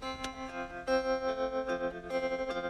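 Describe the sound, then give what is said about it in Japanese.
Electric guitar chords played through a tremolo effect, the volume swelling and dipping in a steady, quick pulse. The playing is close and clear, with no voices. “これあのトレモロっていうエフェクトでうん、なんていうんですかね、ただ音が、こう、うんと、音量が上がったり下がったりするだけなんですよね。だから、一番エフェクトの中でも単純なエフェクトなんですけども、この音が上下するってだけでなんでこんな気持ちいいんですかね”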